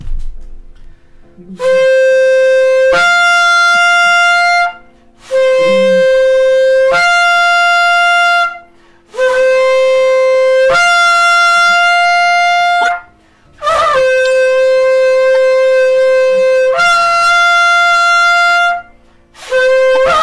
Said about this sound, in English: Let's call them down with our shofars.